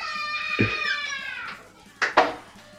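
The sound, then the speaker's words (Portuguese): A child screams from outside in a long, high-pitched, wavering wail lasting over a second, then lets out two short, sharp shrieks after a brief pause. “Vocês estão ouvindo a criança gritar aqui? Agora começou.”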